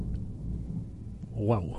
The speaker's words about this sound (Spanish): Y la tormenta de fondo. No sé si las estarán pillando los micros, pero acaba de pegar un trueno. Joder, y el relámpago que ha pegado antes a mí me ha dejado en el sitio.